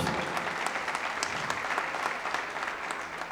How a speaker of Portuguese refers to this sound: Vamos aplaudir o Senhor pelo esse show top.